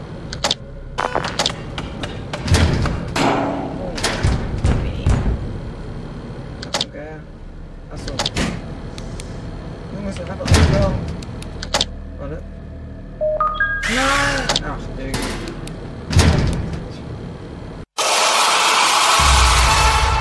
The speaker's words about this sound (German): Ach so, stimmt, er hat da geklopft.